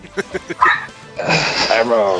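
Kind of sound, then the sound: animal, dog barking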